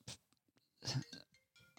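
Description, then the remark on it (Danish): A telephone ringing: short, bright chiming bursts with a thin high tone, one brief ring then a louder, longer one, fading into quieter clinks with no speech. “Hov, oh, nu ringer telefonen.”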